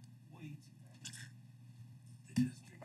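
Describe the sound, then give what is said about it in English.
A bottle of Knob Creek bourbon whiskey pops open with a single sharp burst near the end, rising briefly over a steady low hum and some faint rustling earlier. “That's how you pop a bottle right there.”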